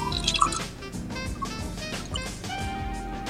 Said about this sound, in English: You can hear that? Yes. yes. Dude, turn off your mic. I just poured some juice.